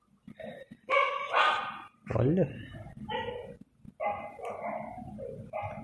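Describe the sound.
A female dog lets out a series of shrill, high-pitched barks in short sharp bursts, while a person speaks over and between them.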